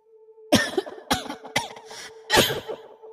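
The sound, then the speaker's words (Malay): A woman, a mother coming down the stairs, coughs in a rapid series of four harsh, raspy bursts over about three seconds, fairly loud, with a faint steady hum underneath and no talking. “tapi belum sempat aku menjawab ibu turun dari tangga dengan terbatuk-batuk ibu menyampuk.”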